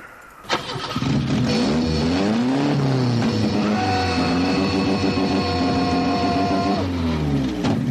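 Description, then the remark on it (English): A car engine cranks and catches, then runs loud and rough, its pitch wavering and surging unevenly as it sputters for several seconds as the engine fails, with no voices. “So anyway, now my engine's ruined.”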